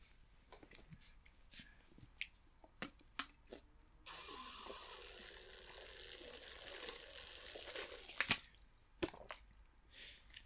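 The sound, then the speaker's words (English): Crinkling and clicking of a plastic water bottle being handled and opened, then several seconds of steady sloshing and gulping as someone drinks water, followed by a few more sharp clicks. No one speaks. “Um, I need water. I need water, man.”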